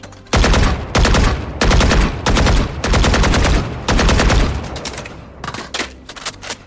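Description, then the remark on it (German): Rapid automatic gunfire from a video game weapon skin, played as a sound in a skin quiz, fired in several loud sustained bursts with short gaps, tapering into scattered single shots at the end. No voices. “Okay, wir machen weiter mit noch einer, einem Skin-Sound.”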